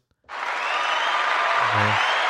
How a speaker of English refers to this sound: Round of applause for y'all. Round of applause. Round of applause. Round of applause for y'all. Round of applause for y'all.